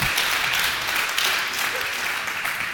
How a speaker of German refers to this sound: wofür habt ihr jetzt geklatscht? Dass ich wusste, dass der eine Affäre mit seinem Hausmädchen hat.